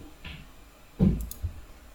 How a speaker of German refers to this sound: du darfst keine Geräte benutzen, die irgendwelche Störgeräusche machen im Podcast, Paul, das geht nicht. Meine also Maus